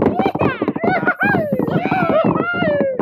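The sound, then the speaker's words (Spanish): A voice imitates galloping hooves with quick, rhythmic clip-clop sounds and voiced whoops, loud, running steadily for a few seconds. “Así que los forajidos se pillaron y cabalgaron.”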